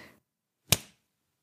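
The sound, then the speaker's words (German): A single sharp hand clap rings out on its own, loud and crisp with a brief decaying tail, after a moment of silence. “Es war klar, dass in dieser, dass in dieser Folge geklatscht wird, hoffe ich.”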